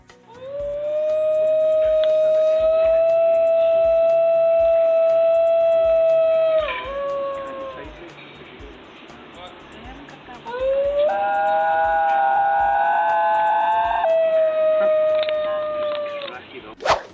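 Singing dogs howl in long, sustained, tonal wails, holding a steady pitch in two extended bouts separated by a short lull, loud, with no talking.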